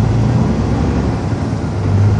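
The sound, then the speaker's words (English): An 800-horsepower Caterpillar C15 truck engine roars loudly, a deep, steady diesel rumble with a low throbbing drone that holds constant throughout, with no voices. “800 horsepower. What kind of engine is this? Uh, C15 cat.”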